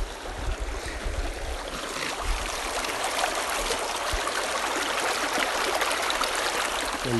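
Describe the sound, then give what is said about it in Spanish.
Water runs steadily through irrigation channels, a continuous rushing and gurgling with a low rumble underneath, holding the same level from start to finish with no voices. “Mira qué linda la agüita, Marín. Corren las acequias.”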